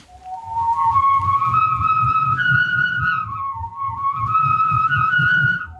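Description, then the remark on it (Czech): A corrugated cable conduit tube, the kind set under plaster for running wiring, whirled overhead sings a steady, flute-like whistling tone that steps up in pitch, dips, then climbs again, over a pulsing low whoosh from the swinging. “Tahle věc hraje. Hraje, když se s ní točí, což je těžko představit, já s ní zkusím točit nad hlavu a nic tady nezhodit.”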